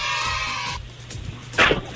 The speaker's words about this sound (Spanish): De vez en cuando el gato se mete sus grititos.